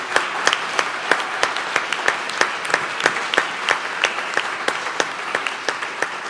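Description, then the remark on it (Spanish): A crowd applauds steadily for several seconds to thank a church for its support, a dense wash of many hands clapping with a few sharper, louder claps standing out. No one speaks. “And I want to, quiero darle un aplauso a Iglesia Briarwood por, por su apoyo.”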